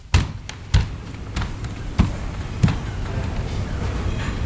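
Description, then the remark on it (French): Five or six hollow, thudding footsteps on a wooden floor at a slow, steady walking pace, over a constant low background hum. Nobody speaks. “Seul avec mes petits pas en bois.”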